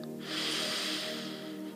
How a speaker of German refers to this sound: Wir atmen nochmal ein.